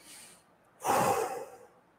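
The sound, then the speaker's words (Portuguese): A slow, deep breath taken as part of a breathing technique: a soft airy inhale, a brief pause, then a fuller, louder exhale that trails off, with no talking. “Respira. Inspira.”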